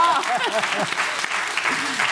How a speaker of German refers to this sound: Applaus für den Mann.